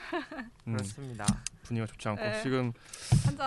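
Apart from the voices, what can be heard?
beer can being opened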